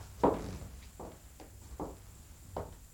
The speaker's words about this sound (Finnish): Hetkinen. Mitä nyt? Askeleita.